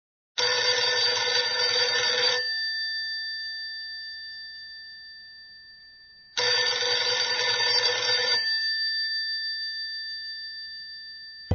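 An old-fashioned telephone bell rings loudly in two long, rattling bursts a few seconds apart, each leaving a shimmering metallic tone that slowly fades. No one speaks.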